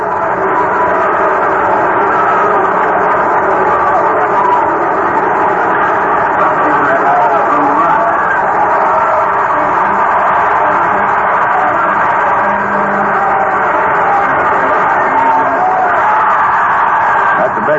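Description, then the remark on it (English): A huge stadium crowd at a Cardinals versus Pirates baseball game chants a long, drawn-out "Lou" for batter Lou Brock, sounding much like booing, a loud steady roar of many voices that carries on without a break. “They're not booing. They're saying, Lou, Lou.”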